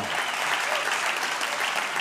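A steady burst of applause from many hands, a dense, even crackle of clapping that holds at a constant level for the full two seconds with no voices rising above it.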